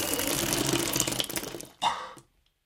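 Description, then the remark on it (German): A wet, gushing splash of vomit hitting the floor: a sustained watery spatter, then one final louder slap that quickly dies away into silence. No voices are heard. “Unverständliches Gebrabbel und noch ein Schwall von Kotze klatscht auf den Boden.”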